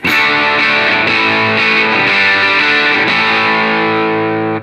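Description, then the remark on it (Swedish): A loud distorted electric guitar on its bridge pickup plays sustained, gritty chords, shifting a few times before ringing out and cutting off at the end. No one speaks. “Bra morr faktiskt.”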